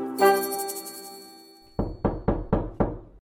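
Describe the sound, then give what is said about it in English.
A sustained ringing chime fades out, then five firm knocks on a door follow in a quick, slightly uneven rhythm, with no voices. “Ah, that must be the doctor now.”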